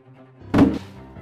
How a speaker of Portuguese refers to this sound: E assim, o corpo do capanga some pelo precipício, espatifando-se no solo rochoso e pontiagudo.